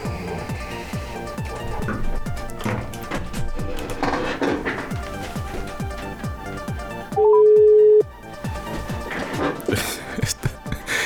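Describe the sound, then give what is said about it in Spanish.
A single steady beep of an outgoing phone call's ringing tone, placed during a live radio broadcast, sounds loud for nearly a second, rising out of busy, clattering background noise that continues before and after. “Voy a llamar a ver si, si sería posible. Eh, a ver, teléfono. Conectamos.”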